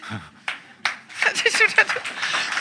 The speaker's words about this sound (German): Da steht wieder, die Männer klatschen frenetisch.